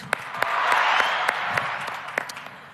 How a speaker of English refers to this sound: So, a round of applause for you guys for making it here today. Thank you so much.